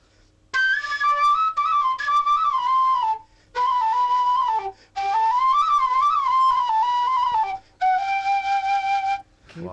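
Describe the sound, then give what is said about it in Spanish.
A makeshift tube flute, a hula hoop with holes, plays a wavering, breathy melody in four sustained phrases separated by brief pauses. It is fairly loud, with no talking. “El, el hula hoop con agujeros suena así.”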